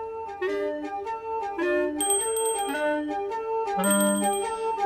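A small bell tinkles repeatedly in bright, ringing tones, with a couple of sharper high chimes standing out, clear with no voices.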